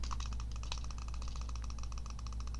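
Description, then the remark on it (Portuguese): Rapid, steady clicking from a computer mouse repeats many times a second, sharp, over a constant low hum with no voices. “Cara, eu não consigo suportar esse clique do mouse.”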